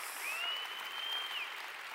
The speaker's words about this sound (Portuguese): Agora, se você quer isso, dê um aplauso ao Senhor bem forte, é verdade.